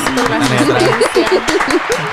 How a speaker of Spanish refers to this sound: un aplauso para producción, como ah, siempre. gracias